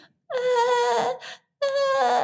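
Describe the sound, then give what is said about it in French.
An adult voice imitates a hungry baby girl's hoarse, cracked-voiced crying: two loud wailing bursts, the first long and strained, the second following after a brief pause. “quand elle commence à pleurer, quand elle a faim, et eh ben ses pleurs sont plus les mêmes, il n'y a plus le même son en fait, je reconnais un son de voix cassée.”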